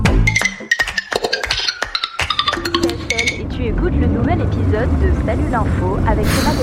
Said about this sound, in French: Pourquoi on roule aussi lentement ah, On est derrière un tracteur, euh, la route est étroite, on peut pas vraiment doubler. Waouh, c'est vrai, il a des roues immenses, mais il roule vraiment pas vite.